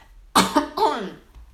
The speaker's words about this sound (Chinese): sorry，让我咳嗽一下。